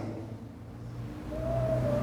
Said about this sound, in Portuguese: Olha como as pessoas passam aí, você vê, a moto está estourando